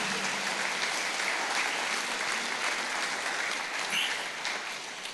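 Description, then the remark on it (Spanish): An audience claps steadily for about five seconds, a dense, even wash of many hands that stays loud throughout and only thins slightly toward the end. “Dale un aplauso de gloria.”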